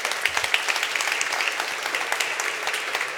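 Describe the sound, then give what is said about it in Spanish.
A crowd applauds everyone present under 17 years old, clapping steadily in a dense wash of many hands with sharp individual claps popping through, sustained at an even level for the whole few seconds. “Un aplauso para todos los que están aquí menores de 17 años.”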